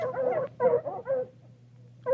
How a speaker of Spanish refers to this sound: ¡Ay! Los perros. Oye. Vente, se pusieron súper locos. ¿Qué onda? ¿Eso es contigo o también conmigo? No, eso es acá, pero está muy raro eso.